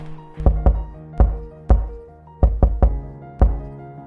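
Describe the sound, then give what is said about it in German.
Several loud knocks on a double-leaf steel door set into a wall, struck as a knock signal in uneven groups of one to three, each hit leaving a brief metallic ring. No voices. “Auf Alex Klopfzeichen hin glitten die beiden Flügel lautlos auseinander.”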